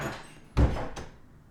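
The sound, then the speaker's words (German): A woman pulls the door of her emptied old apartment shut behind her with a heavy low thud, quickly followed by a sharper click of the latch, then a quiet room tone lingers. No one speaks. “Sie zieht die Tür hinter sich zu.”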